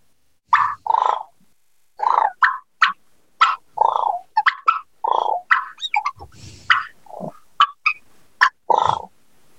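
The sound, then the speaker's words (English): Loud turkey purrs and clucks, a contentment call, likely made on a hand-held game call: a steady run of short, rolling, chirpy bursts with brief pauses between them, and no talking. “There's a few different ways to purr, guys.”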